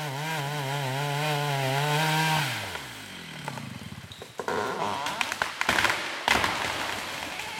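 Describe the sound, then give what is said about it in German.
A chainsaw drones steadily, then its engine winds down as an okoume tree about 30 meters tall and about one meter in diameter falls in a forest. A series of sharp cracks, snaps and crashes of splintering wood follows, with no one speaking. “Wenn ein rund 30 Meter hoher Okumebaum mit rund einem Meter Durchmesser zu Boden kracht und danach eine fast schockierende Leere und Stille zu spüren ist.”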